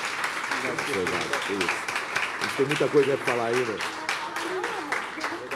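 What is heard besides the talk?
audience applause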